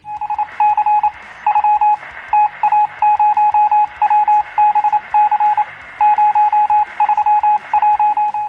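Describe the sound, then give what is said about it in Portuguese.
Telegraph-style Morse code beeps like those sent from ships: a loud, steady high tone keyed on and off in a quick mix of short dots and longer dashes, with a faint radio hiss underneath and no voices. “Aqueles código Morse que os caras mandavam dos navios, que até aparece Sim.”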